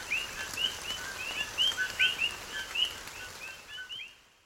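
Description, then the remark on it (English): A chorus of coquí frogs in Puerto Rico: many short, high, upward-sliding chirps overlapping and repeating steadily over a soft, constant background hiss, with no talking. “Um, the frogs in Puerto Rico that go kooky, kooky.”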